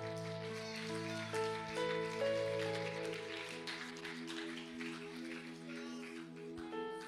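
A crowd claps steadily for about seven seconds, a dense crackling patter that holds fairly even throughout, layered over sustained keyboard chords.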